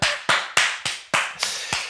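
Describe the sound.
Rhythmic slapping claps, about seven sharp hits in quick succession with a brief gap midway, fairly loud, sounding like hands smacking on skin. No voices.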